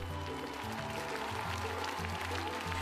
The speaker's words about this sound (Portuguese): À porta do tribunal, milhares de pessoas aguardavam o veredito. A sentença foi recebida com gritos e aplausos pelas mais de 15 mil pessoas que se foram juntando nas imediações do tribunal desde o início da manhã.